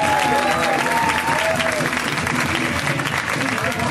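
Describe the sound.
A crowd applauds steadily for about four seconds for a comedian from Denver at a comedy show, dense clapping at constant loudness, with faint cheers and voices mixed into the noise.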